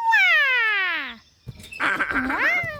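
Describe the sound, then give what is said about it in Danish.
A cartoonish call of Dino, a little cartoon dinosaur, the only sound he can make: a long descending croaky squeal, a short pause, then a warbling, rising-and-falling yelp, loud with no talking. “Og så kan Dino kun sige den her lyd.”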